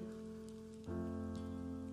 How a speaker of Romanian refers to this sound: Mă rog pentru oamenii care sunt aici, pentru cei care stau sub umbrele, Doamne, sfidând ploaia,